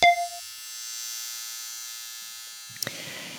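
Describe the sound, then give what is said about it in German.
A tattoo machine buzzes steadily for a few seconds, starting with a sharp click and ending with another click and some brief rustling noise. “Das ist eines der vielen Dinge, die ja aufgrund der Pandemie aktuell nicht möglich sind, sich nämlich tätowieren zu lassen.”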